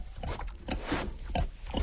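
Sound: pig grunting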